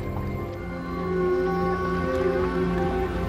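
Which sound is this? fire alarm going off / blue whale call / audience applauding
blue whale call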